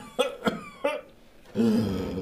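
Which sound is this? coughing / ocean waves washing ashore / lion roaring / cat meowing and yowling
coughing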